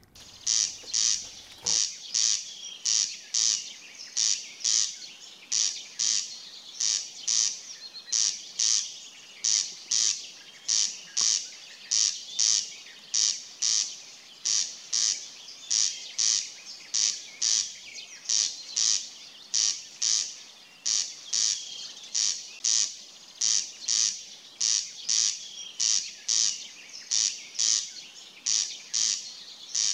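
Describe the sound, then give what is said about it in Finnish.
A great reed warbler sings at the shore, a loud, harsh, grating song of rapid, evenly repeated croaking notes that chatter on steadily for the whole stretch, with no voices. “rääkkä vetää omalla soundillaan.”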